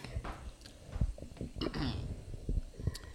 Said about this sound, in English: you got to clear your throat. I did. I did.